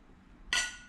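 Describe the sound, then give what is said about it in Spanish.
A single bright clink of glasses touching in a toast, fairly loud, with a short shimmering ring that fades quickly; the glasses hold aloe vera water without alcohol. “Y saludcita a eh. él. Salud.”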